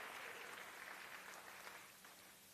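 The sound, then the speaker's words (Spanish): A crowd claps steadily for Jesus Christ in a dense, continuous wash of applause, fading slightly toward the end, with no voices standing out. “Dele fuerte ese aplauso al que nos reconcilió con el Padre, a Jesucristo, nuestro Señor Jesucristo.”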